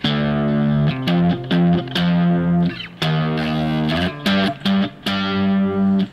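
Distorted electric guitar plays the opening of the Fifth Symphony in reverse: clusters of short repeated notes alternate with long, loud sustained tones across several phrases, with no talking.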